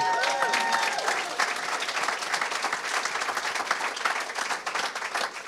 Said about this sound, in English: Yeah, you can applaud for that game too.